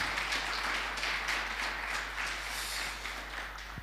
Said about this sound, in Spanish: ¿Qué tal si le damos un aplauso a toda esa gente que está conectada? Eso es para ustedes.